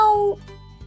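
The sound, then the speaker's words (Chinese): A single short, steady-pitched meow, most likely a person's voice imitating a cat, voicing the cat Mimi in a children's picture-book story, lasting about a third of a second before fading into quiet. “小趣笑着笑着笑醒了，睁开眼睛坐起来一看，原来是自己做了一个梦，而米米就在脚边看着他呢。 喵。”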